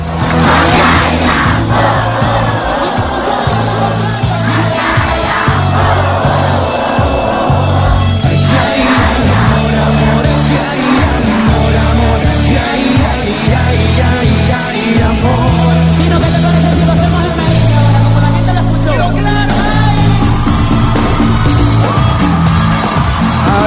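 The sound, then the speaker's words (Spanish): A huge crowd at a concert on the border, held to help Venezuela, sings a 2010 hit song along at full voice over loud, pounding live music, thousands of voices blending into a continuous roar with occasional cheers and shouts. “Yo, yo creo que no hay nadie en, en este momento, en la frontera, que no esté cantando a grito herido esta canción.”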